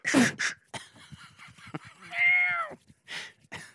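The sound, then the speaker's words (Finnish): A cat lets out one drawn-out, complaining meow while being picked up and held, surrounded by bursts of rustling and bumping handling noise, with no one speaking. “no voi saakeli, ottaa se kissa ja...”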